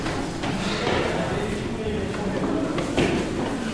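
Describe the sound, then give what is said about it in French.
Footsteps climbing metro station stairs: a series of steady, hard, echoing steps, with a person talking over them and a constant background hum. “il nous reste plus beaucoup de marche. On a bientôt terminé.”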